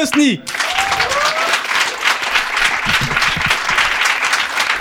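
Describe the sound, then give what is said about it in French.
A large audience bursts into loud, sustained applause with scattered cheers and whoops for a comedian being introduced, dense clapping filling the space throughout, after a brief voice at the very start. “S'il vous plaît, faites du bruit”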